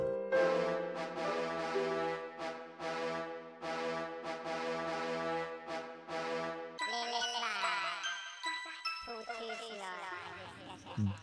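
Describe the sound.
A song plays for several seconds, with a steady rhythmic pulse, bright chiming tones and what sounds like a singing voice, before shifting to a busier, glittering electronic passage near the end.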